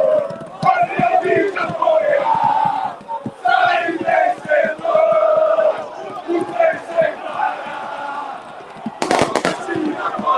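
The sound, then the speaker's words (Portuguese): A large crowd of more than two thousand fans cheers and chants loudly and continuously, many voices overlapping, with a burst of sharp crackling pops near the end. “Mais de duas, mais de duas mil pessoas aqui, ó.”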